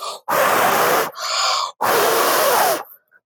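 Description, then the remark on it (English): Heavy, labored breathing done deliberately to get someone's attention: a loud rasping exhale, a shorter wheezy inhale, then another long forceful exhale, with no talking. “okay i have to get their attention maybe if i try breathing really hard”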